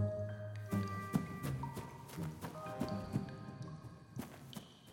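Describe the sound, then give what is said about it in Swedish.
Quick, thudding footsteps of trolls running as fast as they can hurry along at a fairly steady, slightly uneven pace, moderately loud, layered over sustained tonal music with no voices. “Och trollen sprang så snabbt de kunde med sina ben.”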